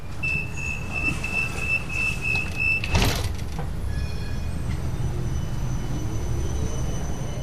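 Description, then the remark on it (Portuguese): A light rail tram (surface metro) in Almada rumbles steadily, with a high, sustained warning tone for a few seconds, then a sharp clunk like doors shutting, and the low hum continuing afterward. “Com a chegada do metro de superfície, passou a haver alternativa aos autocarros.”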